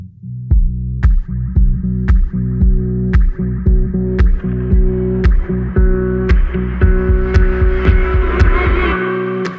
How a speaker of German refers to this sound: Äh, vorher gibt es eine kurze Musikpause.